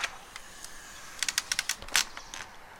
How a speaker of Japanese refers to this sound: 窓を開けてみた